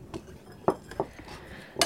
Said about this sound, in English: Just going to mix it up really well in a medium sized bowl.